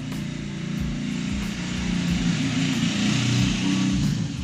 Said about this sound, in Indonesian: gue nggak tahu juga bakalan ada motor lewat sekencang itu itu kenal pot apa lewat sok lewat lah udahlah